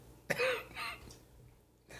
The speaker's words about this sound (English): You gonna cough on the mic some more days?